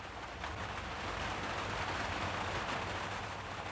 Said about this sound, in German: Und dieses Geräusch bei ihr am Dachfenster, dieses ständige Plätschern der Regentropfen